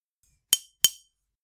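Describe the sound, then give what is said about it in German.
Two crisp taps on glass imitating raindrops, spaced about a third of a second apart, each a bright clink with a short ringing decay, alone against silence. “Oh, immerhin so Glas, also ist eher so Eisregen bei dir, aber es ist so, ja, vielen Dank.”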